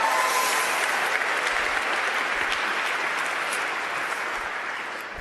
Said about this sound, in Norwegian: Jeg syns du skal gi en god applaus til møtelederen. Veldig fint.